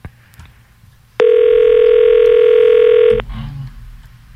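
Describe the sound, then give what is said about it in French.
A single loud, steady telephone ringback tone sounds for about two seconds during an outgoing phone call, a sustained electronic buzz over faint background noise, then stops abruptly. “T'appelles quelqu'un qui s'appelle Michel.”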